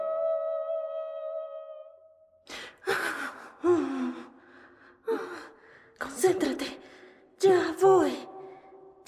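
A steady humming tone gives way to a series of about six effortful grunts and sharp gasps, coming in quick bursts as someone strains and pushes very hard.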